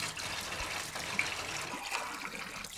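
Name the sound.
water running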